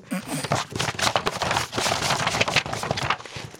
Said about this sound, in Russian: расскажи, пожалуйста, про книгу, которую ты держишь да. в руках, и страницы, которые периодически шелестят в твой микрофон